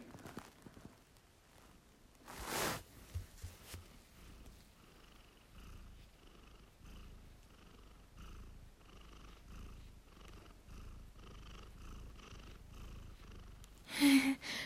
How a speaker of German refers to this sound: Sie hat nämlich geschnurrt. Die liebe Katze hat geschnurrt